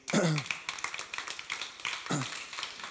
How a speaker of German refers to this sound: das war das motivierende Klatschen, ihr könnt noch besser werden.